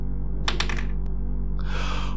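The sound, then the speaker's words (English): A quick burst of hard little clicks and clatters as dice tumble across a table for a persuasion roll, then one more tap and a short rattling hiss over a steady low hum. “Roll persuasion.”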